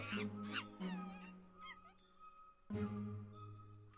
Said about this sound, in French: Vous avez entendu quand même des cris de singes